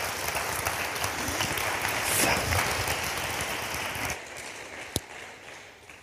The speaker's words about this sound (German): Wir geben dir gerne einen Applaus noch.